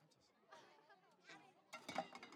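Metal cans clatter and clank as they are knocked down in a can-throwing game where players throw and pick three cans, a burst of rattling impacts near the end, amid the background chatter of a lively crowd.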